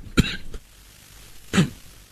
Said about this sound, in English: I apologize. I was at the doctor yesterday. I'm on three meds to try to deal with this problem. Uh, so I apologize for the interference here with my cough.